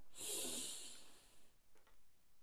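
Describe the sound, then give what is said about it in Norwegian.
A single long, deep breath drawn in through the nose during a guided breathing exercise, an airy hiss lasting about a second and a half before fading into near silence. “Pust godt inn med nesa.”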